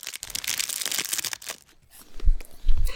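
Gold-colored foil wrappers on milk chocolate coins (Hanukkah gelt) crinkle and rustle for about a second and a half, a bright crackly texture, followed by a couple of soft low thumps.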